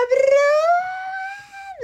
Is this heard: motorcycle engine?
no